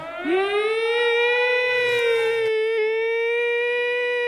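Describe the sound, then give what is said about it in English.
A civil defense warning siren winds up and holds a loud, steady wail with rich harmonics, sounding alone without any talking, sustained through the whole stretch with only slight wavering. “a military uh, emergency or a uh, tornado warning or a tsunami or whatever, they're kind of imposing and weird. You see them, and then when you hear them, I mean, the range of these things.”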